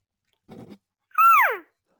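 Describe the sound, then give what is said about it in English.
A brief soft rustle, then a single cow call blown on a game call as an introductory call when moving into a new area: one loud, reedy, half-second note that starts high and slides steadily downward in pitch, followed by silence. “So uh, a lot of times too, if I'm going, I will introduce just with a single cow like if i'm moving to an area and i come to you know um, a, a, rise that's going to give me a new area to call into i just uh-huh.”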